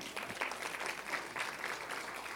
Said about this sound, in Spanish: Y gloria a Dios que todavía aún así algunos diezmos. Un aplauso fuerte por los que diezman.